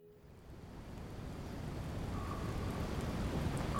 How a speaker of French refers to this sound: Je suis sur euh, le fleuve Yukon. C'est une journée euh, très fraîche. On est entre euh, la pluie et la neige. C'est une journée où je sens que je suis à zéro. On a pagayé toute la matinée. On a été pris dans une tempête de vent avec beaucoup d'eau